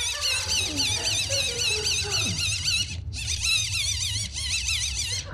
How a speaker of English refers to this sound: I just want to make it clear to the listeners at home it's a wind up torch. I'm not strangling a kitten. it does sound a little bit like I'm.